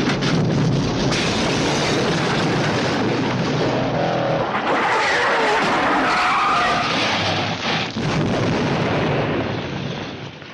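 Steve McQueen's Ford Mustang Fastback skids hard with tires squealing in high, wavering tones over a loud, roaring engine, sustained throughout, with bursts of rumbling noise and no talking.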